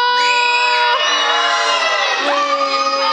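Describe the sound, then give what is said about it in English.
A large audience in a room cheers and shouts loudly and continuously for about three seconds, with high-pitched voices and whoops blending into a sustained roar, as the cat people answer whether they are dog or cat people. “So I need to know in this room, I'm going to say both the answers, then I'm going to have you cheer for which one, okay?”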